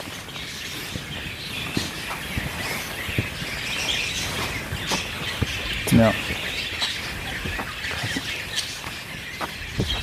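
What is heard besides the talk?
birds chirping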